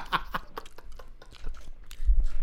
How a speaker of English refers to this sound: Everybody can hear you fucking munching, my nigga. fucking turn the mic away.